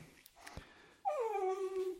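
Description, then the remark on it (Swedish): A grumpy dog lets out a single drawn-out whimper, a nasal whine that slides downward in pitch and lasts about a second, fairly loud after a moment of near silence. “Ja, sur hund här.”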